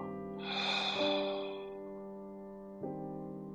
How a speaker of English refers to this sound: Take another deep breath in through our nose and a gentle breath out of our mouth with the sound of ha.